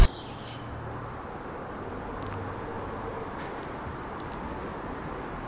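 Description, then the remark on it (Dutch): A steady, low rumble of car traffic fills the background, continuous and fairly quiet, with a few faint high chirps or clicks scattered on top and no one speaking. “Ja, we horen vooral eh, wagens op de achtergrond, denk ik.”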